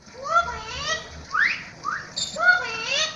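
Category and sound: bird, parrots calling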